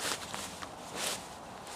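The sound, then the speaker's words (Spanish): Footsteps of a group led by two local biologists crunch along a dirt mountain trail near Santo Domingo Ixcatlán in an uneven rhythm of soft, gritty bursts, quiet, with no voices. “Estamos caminando por la montaña.”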